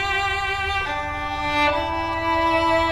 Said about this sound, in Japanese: バイオリンの音が聞こえてきましたけれどもこれもあれですかイタリアの音ですかこれは、えー、イタリアの北部にクレモナという町があるのですが、えー、そこはい、クレモナという町で活躍している日本人バイオリニストの